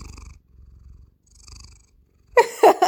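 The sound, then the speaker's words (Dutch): A cat lying on a person's lap on a sofa purrs in a steady, rhythmic rumble, three breathing cycles in a row, before a sudden louder burst of sound cuts in near the end. “En die ligt heel hard te knorren.”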